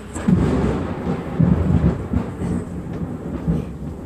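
Low, rolling rumbles of thunder during a storm swell and fade in several waves, a steady deep roar with brief louder surges, with no voices present.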